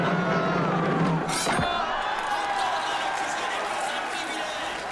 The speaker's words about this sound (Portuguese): Que multidão é essa? Tá rolando carnaval fora de época? É o Florianópolis?